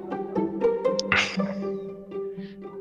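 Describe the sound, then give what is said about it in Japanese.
A dog barks several times in quick, uneven bursts, with one harsher, louder bark near the middle and sharp yips between. “ちょっと犬がうるさくて申し訳ないんですけど”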